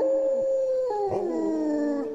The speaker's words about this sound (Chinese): 直到有另一只野狗跑进巷子。对着哮天轻叫了几声，果然，这些野狗都是哮天犬的手下。